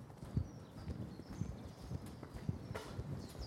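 A horse walks slowly in a paddock, its hooves landing in a steady, unhurried clip-clop of soft thuds about every half second, heard outdoors with no one talking.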